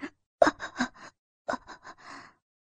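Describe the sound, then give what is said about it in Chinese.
A man pants heavily in two quick runs of loud, breathy gasps, each burst rough and partly voiced, separated by a brief pause with no speech. “陈辅林的喘息声以及动作连带的影响了吕相福。”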